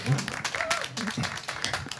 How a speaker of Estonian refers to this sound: ei pea tõusma aga võib tõusta, võib selle eest, võib selle pingutuse eest võib aplausi ka teha